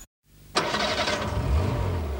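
A car engine cranks briefly and catches with a sudden burst, then settles into a steady, rumbling idle with a low hum underneath, as the car sets off for Roubaix, 13 km north-east of Lille. No one speaks.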